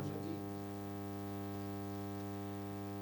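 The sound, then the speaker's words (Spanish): A faint, steady electrical hiss runs unbroken through the whole stretch, layered over a low buzzing hum, with no voices or other sounds. “Sí, tenemos un pequeño siseo.”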